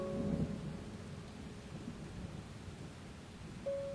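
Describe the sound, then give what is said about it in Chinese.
A low, rolling rumble of thunder swells early and then grumbles on steadily for several seconds over a soft rain-like hiss, with a thin steady tone at the start and end. “若不是雷声提醒虫鸣，我几乎忘了和春天有一个约会。”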